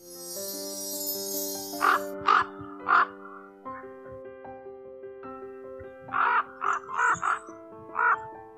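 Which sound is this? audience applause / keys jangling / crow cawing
crow cawing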